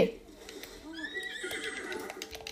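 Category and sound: animal, horse neighing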